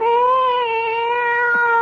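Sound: cat meowing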